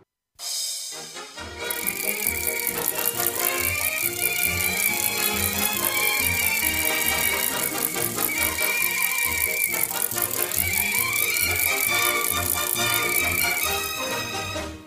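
A recorded song begins after a brief moment of quiet, then plays loudly and continuously with a steady bouncing beat, bright scratchy percussion and sustained melody notes. No singing is heard.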